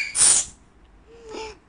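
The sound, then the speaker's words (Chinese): A narrator imitates a big sneeze by a little pig in a children's story, blowing a plastic tube off its nose: a sharp, hissy burst at the start, then a shorter, softer voiced puff with a brief tonal edge about a second later. “小猪打了一个大大的喷嚏，把。”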